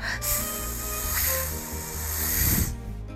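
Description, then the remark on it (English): A snake kept in a bathtub hisses in one long, steady, breathy rush lasting about two and a half seconds, then cuts off abruptly, with soft music playing underneath. “and snake，还养了蛇。”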